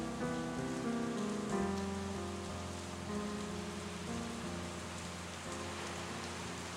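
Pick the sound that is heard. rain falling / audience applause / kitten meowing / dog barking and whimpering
rain falling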